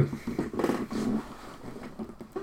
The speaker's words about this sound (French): Comme d'habitude je bouge avec mon fauteuil, donc ça fait du bruit.